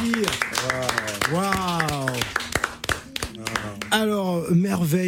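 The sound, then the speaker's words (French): A crowd applauds a guest at the host's request, with scattered claps ringing out steadily while voices call and cheer loudly over them throughout. “avec nous et je vous demande de l'applaudir.”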